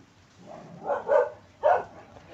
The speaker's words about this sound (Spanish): Ya empezó el ladrerío de perros.